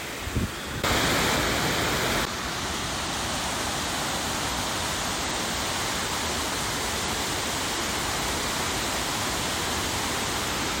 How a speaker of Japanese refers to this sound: 実は干爆台から先吊り橋を渡ると登山道がありましてそこを登るとさらに上の方を間近で見ることができます今お届けした音はその間近に見た上上の方の滝の音でございます